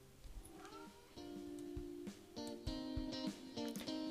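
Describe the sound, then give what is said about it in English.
A cat meows repeatedly, loud: drawn-out, wavering cries that rise and fall in pitch, coming one after another with only brief pauses between them. “It's not gaming alone if my cat's here, right?”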